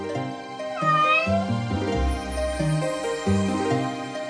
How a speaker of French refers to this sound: D'un toit à un autre, une silhouette noire et féline se faufile avec agilité. C'est un chat qui profite du clair de lune pour se promener.